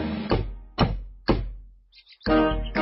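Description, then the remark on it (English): Three firm, evenly spaced knocks on a little front door in the children's story Go Away, Mr. Wolf, each a heavy thud with a short ringing decay, followed after a brief pause by a louder, sustained clatter. “Who's that knocking at our little front door?”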